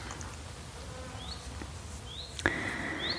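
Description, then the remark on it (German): Insects buzz steadily outdoors under an apple tree, a low continuous hum with a few faint chirps, then a louder buzz rises suddenly near the end as one flies past. No one speaks. “Ich sitze übrigens unter einem äh, Apfelbaum, glaube ich, deswegen summt das hier so um mich.”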